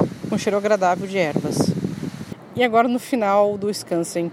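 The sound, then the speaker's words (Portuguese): Strong wind blows outdoors in a small herb garden, a rough, breathy rush and low rumble running beneath a person talking, heaviest in the first half before easing off. “E agora estamos num jardinzinho de ervas, curtindo um vento que é muito forte, o vento aqui,”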